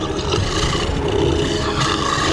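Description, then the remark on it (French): A giant wolf roars with a deep, rumbling growl that stays loud, dense and unbroken for a couple of seconds, with no voices over it. “Elle est là-bas Regardez Elle fait face au loup géant”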